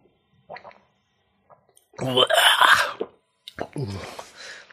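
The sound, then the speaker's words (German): After a few faint sips and small mouth sounds, people drinking neat gin on an empty stomach burst into loud, strained groans and coughing exclamations, in two drawn-out bursts. “warum haben wir Gin pur getrunken?”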